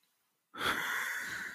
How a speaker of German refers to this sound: Da atmet einer irgendwie extrem ins Mikro. durch den Mund auch.